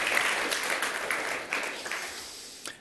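A crowd applauds a worship band steadily, a dense wash of many hands clapping together, holding fairly even for a few seconds before easing slightly.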